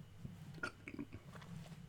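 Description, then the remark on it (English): A quiet, low, rumbling burp stretches across the moment, mixed with a few wet mouth clicks and smacks, with no talking. “Ooh, I burp, and it had like you know when you burp when you get like a little bit of spit up in your mouth, it's like or like a little bit th- if you want to call it throw up, um, and yeah, that shit was nasty.”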